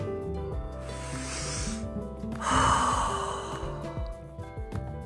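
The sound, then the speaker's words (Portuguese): A slow, deep breath drawn in, followed by a fuller, louder exhale, both airy, with soft steady music underneath and no talking. “aquela história de que respira fundo, fica calmo.”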